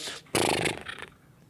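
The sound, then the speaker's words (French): A person vocally imitates a wet dog coming out of the water and shaking itself off: a loud, sputtering, fluttery burst of lip-and-breath noise lasting under a second, then trailing off. “comme un chien quand il, se secoue et qui sort de l'eau.”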